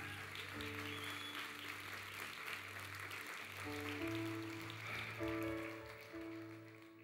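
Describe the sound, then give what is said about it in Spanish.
Steady, dense applause from a crowd, a strong round of applause for the King, fills the whole stretch, a bright crackling wash, while sustained keyboard chords hold and shift underneath it. “Wow, alguien puede darle un fuerte aplauso al Rey.”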